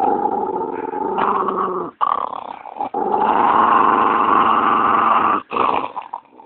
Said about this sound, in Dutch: Om het wat duidelijker te maken, even de vergelijking zullen we ze achter elkaar zetten. De speelgrom de waarschuwingsgrom.